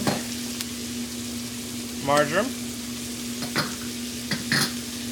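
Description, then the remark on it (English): Steady crackling sizzle of shallots and herbs, including thyme, frying in a pan, with a low constant hum underneath, a few sharper clinks and a brief burst of speech partway through. “All right, so now we'll add our shallots, thyme,”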